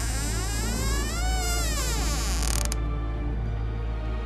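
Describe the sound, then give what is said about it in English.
A bedroom door creaks open in one long, wavering groan whose pitch bends up and down for nearly three seconds, then cuts off, leaving only a low background hum. “I held my breath and feigned sleep as the door creaked open.”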